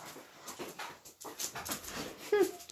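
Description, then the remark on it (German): A dog about to be let outside whimpers and pants, with a higher whine near the end standing out over a steady breathy background. “Ja, der Hund geht gleich raus, ja.”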